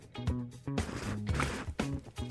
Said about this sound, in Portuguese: hoje nós estamos tomando um tereré, ó. Dá uma escutada aí.